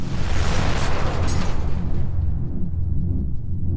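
A loud, explosive crash like thick metal shattering erupts at once, a harsh burst that fades after a couple of seconds into a heavy, lingering low rumble.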